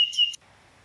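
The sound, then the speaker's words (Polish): A single brief, high-pitched bird chirp, played as an app's ambient sound, rings out clearly, lasting under half a second before fading into near silence with no other sounds. “Czy dźwięki otoczenia to są te ptaki właśnie?”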